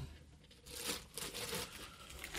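Paper crinkles and rustles in a steady run of irregular, scratchy bursts that start after a brief quiet moment and continue to the end, fairly soft overall.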